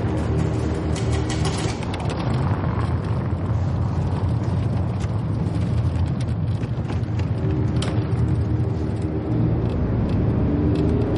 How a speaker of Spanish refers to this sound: Él sube rápido al Volkswagen y sale del garaje. El hombre conduce apresurado por la ciudad.